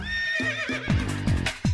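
A horse neighs loudly, a wavering high whinny that breaks into rapid throaty snorting pulses near the end, with no talking.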